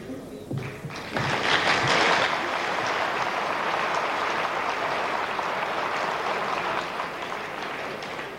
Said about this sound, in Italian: Applauso.